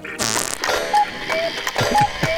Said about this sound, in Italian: Escono e rientrano, escono e rientrano. E fanno un rumore di orologio vecchio.